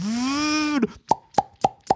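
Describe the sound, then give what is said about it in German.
In a Hamburg cinema, as the THX sound plays at the start of a film, a sustained, slowly rising tone gives way to four hollow pops of people opening beer bottles, sharp and evenly spaced about a quarter second apart, with no talking. “hast du gehört, wie plötzlich sechs Leute ihr Bier aufmachen, damit es keiner hört.”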